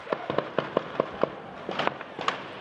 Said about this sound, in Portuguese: O confronto com os traficantes teve início assim que a polícia chegou à região. Os tiros foram ouvidos de dentro da comunidade e também de bairros próximos.